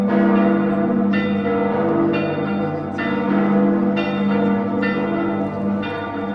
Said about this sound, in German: Dienstag um 21.28 Uhr. Zum Zeitpunkt des ersten Bombenabwurfs vor 79 Jahren wird die Stadt von einem Klangteppich bedeckt. Wer genau hinhört, hört die einzelnen Glocken heraus, insbesondere die Domglocke Husiana.